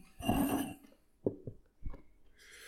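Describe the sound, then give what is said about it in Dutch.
A brief airy slurp as white Sancerre wine is sipped from a glass, followed by three soft, low gulps spaced apart, then a faint breathy exhale. No one speaks. “Hij zet het glas aan zijn mond en hij neemt een weloverwogen slok.”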